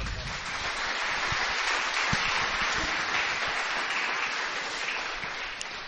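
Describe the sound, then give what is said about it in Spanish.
An audience applauds the Lord steadily, a dense wash of many hands clapping at an even, fairly loud level for about six seconds, with faint voices mixed into the crowd noise. “Un aplauso al Señor.”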